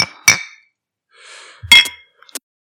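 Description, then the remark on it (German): Glasses clink together in a toast to this year's Hall of Fame class, two bright ringing chimes a little over a second apart, with a soft rustle between them and a few light taps trailing after. “Komm, aber lass uns die Gelegenheit einfach mal nutzen und auf die diesjährige Hall of Fame Class anstoßen, oder?”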